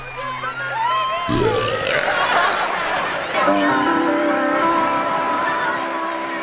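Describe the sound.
A large crowd of girls screams continuously, a dense wall of high-pitched shrieking voices that swells and stays loud throughout, with a low rumble passing underneath.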